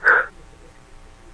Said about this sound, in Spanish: Es que iba a estornudar, perdón. Salud.